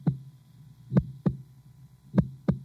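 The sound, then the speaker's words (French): A human heart beats in steady lub-dub pairs, each double beat deep and muffled over a low hum, clear with no voices. “ce cœur qui bat, c'est une trace de vie.”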